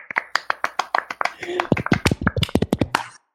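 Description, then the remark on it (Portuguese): A quick, steady run of sharp hand claps, about six per second, lasting around three seconds, with voices chattering or laughing underneath before it stops abruptly. “então, como ela não está entre nós aqui nesse momento, uma salva de palmas por ter adivinhado esse artista que eu nunca ouvi falar na minha vida.”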